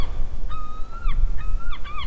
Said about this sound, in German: So ein bisschen Meeresrauschen. Ah ja, das klingt gut. Möwen